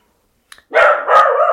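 A dog barks two loud, drawn-out barks running almost together after a faint click, with no one talking.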